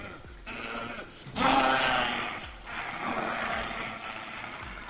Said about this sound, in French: Le hurlement bestial d'un loup se mêle au cri d'agonie de Gilles.